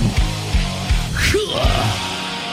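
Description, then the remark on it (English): A loud concert crowd yells and whoops, with one voice rising in a sharp shout, over a steady thumping beat that repeats roughly every half second. “The greatest live shows and that cheering crowd sound.”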